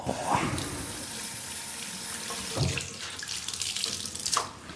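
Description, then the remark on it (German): A faucet runs steadily into a sink, with brief splashes and gushes as a washcloth is held under the stream to wet it. The water is fairly loud, with no talking. “So ein Waschlappen. Genau, Waschlappen, so heißen die.”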